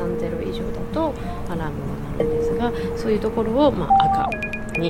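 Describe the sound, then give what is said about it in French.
A radiation dosimeter from Ukraine sounds its alarm as the radiation level reaches red, its highest level, while radiation is measured 5 cm above the ground: sustained electronic tones that shift in pitch, ending in a sharper, higher run of quick beeps, with voices and background noise underneath. “Quand on arrive à ce niveau, il y a une alarme qui retentit sur ce dosimètre.”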